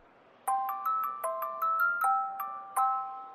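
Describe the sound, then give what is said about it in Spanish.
A delicate wind-up music box, made of metal cylinders and wheels, plays a slow, plinking melody, each bright metallic note struck cleanly and left to ring and overlap, fairly soft with no voices. “¿Sabes cómo suenan las cajas musicales?”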